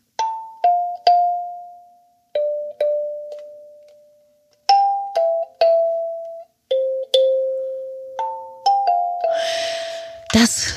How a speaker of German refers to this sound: liebe Freunde der Einschlafmusikinstrumente, ist eine Kalimba. Und ich kann das natürlich nicht wirklich gut spielen, aber wenn man das kann, macht das schon was her